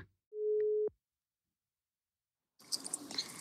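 A single steady phone tone sounds for about half a second as a call is placed from Oslo, followed by a pause of silence and then a burst of crackly, hissing line noise as the call connects.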